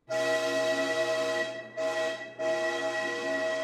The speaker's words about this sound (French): Je me précipite donc à l'intérieur, même pas deux secondes après avoir mis les pieds dedans, toujours dans le sas séparant les différents wagons, j'entends le sifflet du contrôleur et le train commence à s'élancer.